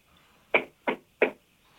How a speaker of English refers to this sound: And I thought, who on earth is knocking on my door at six in the morning? So I thought, I ain't opening it.